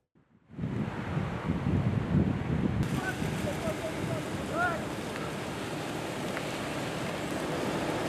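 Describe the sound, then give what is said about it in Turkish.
A steady, loud roar of strong wind with a dense hiss of rain in Gelibolu, Çanakkale, Turkey, where a forest fire was burning, beginning abruptly and continuing unbroken, with a few faint high chirps briefly rising above the noise. “Ve sonrasında peşi sıra gelen yağmur hem yüreklere su serpti hem de yangın konusunda büyük bir mücadele içinde olanların imdadına yetişti.”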